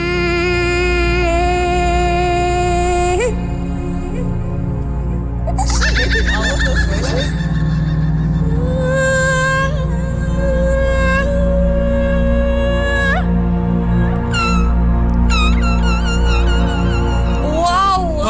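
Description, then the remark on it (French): A female impressionist and humorist makes a continuous string of sound effects with her mouth over a light background track: sustained whistled and humming tones, warbling squeals like a whinny, and quick rhythmic chirps near the end, loud, with no speech. “Et elle nous transporte dans ses univers grâce au bruit de sa bouche.”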